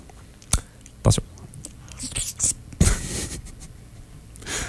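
Chewing with irregular crunchy bursts and soft mouth noises, a few sharper bites standing out, during a taste test of a lemon-flavoured food, heard alone without any talking.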